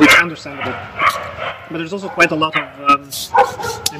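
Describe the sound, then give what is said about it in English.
Dogs bark repeatedly in the background, a scattered series of sharp yaps and woofs, while a person keeps talking in the foreground over them. “apologies for the dogs barking in the background.”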